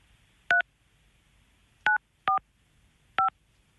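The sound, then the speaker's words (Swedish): Four short electronic touch-tone beeps from a phone keypad being dialed, each a crisp two-note tone, spaced unevenly with pauses between them against a quiet background. “Det är via Facebook som man har kunnat tävla om den här platsen och vi ringer upp en intet, jag säga, ont anandes.”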